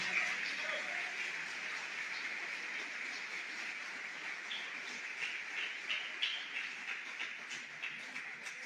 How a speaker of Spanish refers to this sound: Y dele un aplauso a ese Jesús precioso que está aquí en esta mañana.